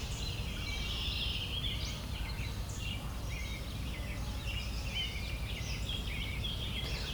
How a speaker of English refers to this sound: Yep, there's an orchard oriole here somewhere.